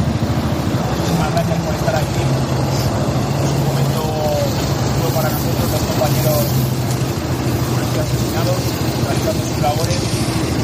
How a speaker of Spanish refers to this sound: Es una imagen preciosa, están los coches encendidos, claro está, y por eso se oye con dificultad